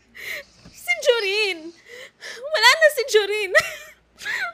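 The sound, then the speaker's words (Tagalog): A voice acts out the uncontrollable sobbing of a character who has sat down by a small tree in a forest: wavering, drawn-out wails broken by sharp, gasping breaths, fairly loud, in two long bursts and a short final whimper. “Uupo ito at hindi mapipigilang umiyak.”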